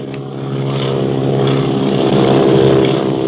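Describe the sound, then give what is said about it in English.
A propeller airplane, following another plane, drones steadily overhead, its engine a loud, continuous buzzing hum with layered harmonic tones that swell slightly toward the end. No voices are heard. “Where did that other plane come from?”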